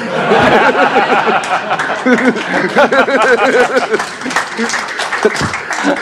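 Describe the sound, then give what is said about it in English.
Scattered clapping, including from Times columnist Danny Finkelstein, rattles beneath a crowd's loud, bubbling laughter and chuckles, sustained for several seconds with the claps mixed into the steady roar of amused voices. “Danny, Danny Finkelstein was clapping at that, by the way.”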